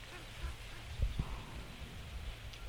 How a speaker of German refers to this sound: Kolbenenten haben da gerade gerufen, sind jetzt aufgeflogen.